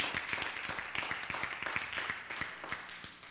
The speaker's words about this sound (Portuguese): Dê um aplauso ao Senhor nesta noite.